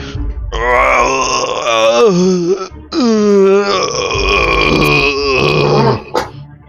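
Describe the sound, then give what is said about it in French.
Two long, loud, deep gravelly groans from a creature deep in a cavern follow each other after a brief pause. Their pitch wavers and slides as they echo from far back in the cave. “Euh, groaning, une espèce de, gémissement euh, grave et rocailleux euh, d'une créature au fond.”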